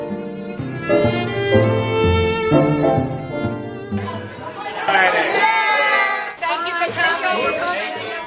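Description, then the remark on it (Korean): A crowd of voices calls out together in sustained tones, then bursts into loud cheering and whooping that carries on steadily to the end, as the Painting with a Twist branch in Virginia, a paint-and-sip art class franchise, opens its doors. “사람들의 환호 속에 페인팅 위더 트위스트 버지니아 지점이 문을 열었습니다.”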